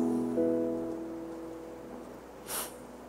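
A short, crisp rustle of many Bible pages being turned as people look up Romans chapter 8 rises briefly near the end, over a soft, steady backdrop of sustained musical tones. No one speaks.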